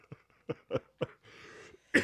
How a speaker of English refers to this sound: No, no, here we go. There we go, coughing.